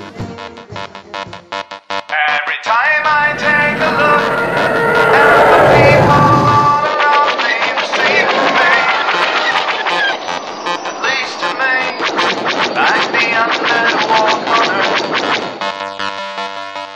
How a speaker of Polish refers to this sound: I to, co słyszeliście przed chwilą, to była parada a dokładniej próba parady. Próba parady, która powróciła po dwóch latach nieobecności i rozpoczęła tegoroczny zlot.